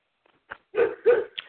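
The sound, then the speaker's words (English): A dog in the neighborhood barks twice in quick succession, heard outdoors, two full, harmonic woofs preceded and followed by a brief yelp, standing alone against a quiet background with no talking. “That's a dog in the neighborhood.”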